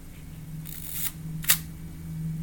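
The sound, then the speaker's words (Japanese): A film camera's advance lever is cranked once to advance the film by one frame, giving a short mechanical ratcheting wind and a sharp metallic clack at the end over a steady low hum, with no talking. “その音が何ともね言えないんですよねちょっと聞いてみてくださいあのまずですねフィルムを一枚一枚こうレバーでこうガシャッと、え送る作業が必要なんですね、えそれはこんこんな音です”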